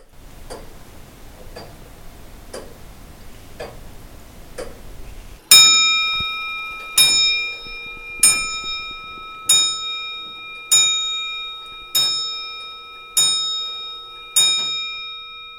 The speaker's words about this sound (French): Hein, le feu qui crépite dans le Cantou, la comptoise qui tic-tac.